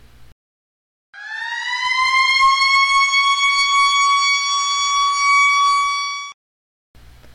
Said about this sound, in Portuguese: Veja um exemplo. Ao ouvir esta sirene